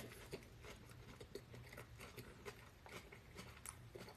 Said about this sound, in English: User says you chewing like you eating meat. Mind as well be eating meat.